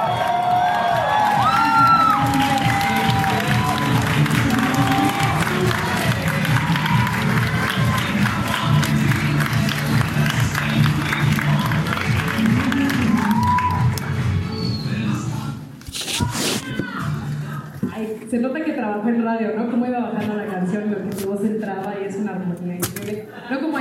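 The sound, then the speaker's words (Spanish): An audience cheers and applauds to welcome a speaker in a dense, steady roar with shouts and whoops rising above the clapping. It fades somewhat near the end as a voice begins talking over the noise. “Y ayúdenme a recibir como ella se merece desde la ciudad de Querétaro a la líder oro ejecutivo”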